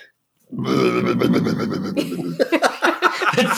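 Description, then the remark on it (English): A person imitates an alligator mating call with a deep, drawn-out vocal groan, breaking into rough, pulsing grunts at the end, loud. “like a groaning noise that Parker described as sounding like a alligator mating call”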